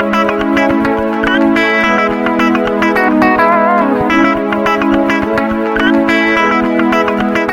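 A 2000s Russian pop song plays loudly and steadily throughout, with layered synths, a driving beat and a melodic line, heavily processed with echo and effects, and no one talking over it.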